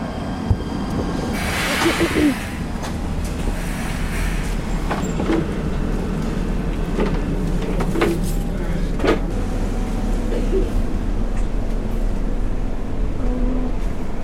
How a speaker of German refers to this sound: Geräusch von der Bahn hätte auch irgendwas anderes sein können. Wie so ein Flugzeug oder so.